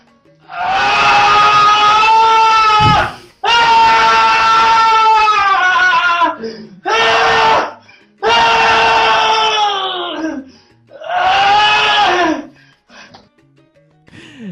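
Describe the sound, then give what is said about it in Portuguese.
A loud, frustrated human scream, delivered as five long, strained bursts separated by short pauses for breath, each one wailing and raw, with no other talk. “eu fiquei tão puto que me deu vontade de abrir a janela aqui do lado e gritar bem assim, ó.”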